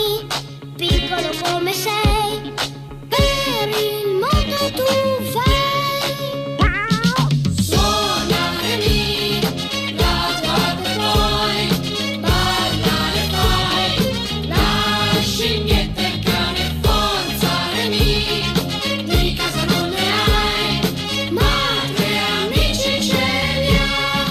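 A cartoon theme song plays loud and continuous, opening with a sung melody over light accompaniment, then swelling into a fuller, bright arrangement with a steady beat.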